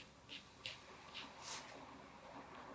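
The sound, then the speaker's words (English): Quiet scratchy strokes of a Unigel pencil with a grip moving across paper, four or five short bursts spaced unevenly over a few seconds, with no voices. “I grabbed a different pencil. This is a Unigel and it's got a great grip.”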